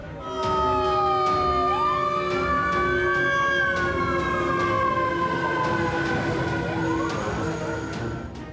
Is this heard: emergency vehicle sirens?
yes